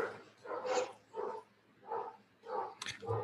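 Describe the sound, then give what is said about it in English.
The speaker's dogs bark repeatedly in the background in a steady series of sharp, mid-pitched yaps, about five or six barks spaced roughly half a second apart, moderately loud, with no talking. “And that's my dogs in the background.”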